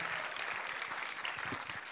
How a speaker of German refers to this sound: Lasst auch uns auch ihr mal einen Applaus geben.